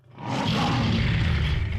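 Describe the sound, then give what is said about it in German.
A lion lets out a deep, rumbling roar that swells quickly and holds steady, loud, with a rough, breathy growl filling the low end. “Löwen.”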